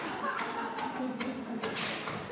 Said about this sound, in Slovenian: še vedno ritmično, močno udarja, stoji ob odru in udarja z res mogoče metom, predmetom.